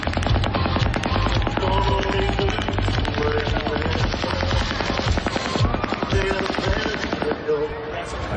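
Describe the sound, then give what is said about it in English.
Sustained bursts of rapid automatic machine gun fire crackle almost continuously for several seconds at a packed open-air country western concert at 10:30 at night, loud and echoing outdoors, with a dense wash of crowd noise and faint music beneath. “It's a machine gun the guy's using up there.”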